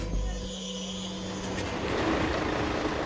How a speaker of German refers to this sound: Betonwerk Berlin-Tempelhof. Kieslaster aus Altenau laden das begehrte Gestein ab. Was einige Stunden vorher noch 40 Meter unter der Erde lag, wird gleich zu Beton und direkt zu einer Berliner Baustelle gefahren.